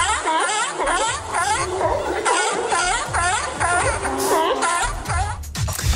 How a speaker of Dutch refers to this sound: Zeehond of zo. Ja, heel goed.